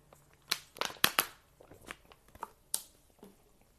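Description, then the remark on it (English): Someone drinking from a plastic water bottle: a handful of sharp, irregular crinkles and crackles as the thin plastic flexes, with soft sips between them and no talking. “hold on, I gotta drink some water.”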